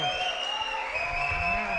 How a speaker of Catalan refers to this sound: Avui som a la sala polivalent de l'Ajuntament amb un recinte ple, amb un aforament per 2.000 persones. Ara aplaudirem perquè la gent... Que se sentin els 2.000!